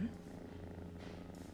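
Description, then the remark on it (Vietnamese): A sleeping cat, one of two, purrs steadily at 3 a.m., a soft continuous rumbling drone with a gentle pulsing rhythm that stays even and quiet throughout. “hai con mèo của mình cũng đang ngủ nữa nó đang kêu gừ gừ đi không biết có vô cam không à”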